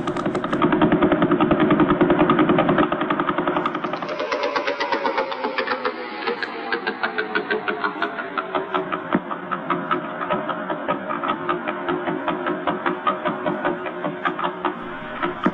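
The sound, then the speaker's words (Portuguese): Slowed-down Vela pulsar radio pulses, sonified: a dense, buzzing rush of rapid pulses gives way to a steady, loud train of distinct rhythmic thumps, like helicopter beats, with no talking. “agora nós iremos trazer a pulsar de vela. Vocês se lembram dela, né? Claro. Mas o som dela está muito rápido, então nós vamos diminuir a velocidade, tá bom?”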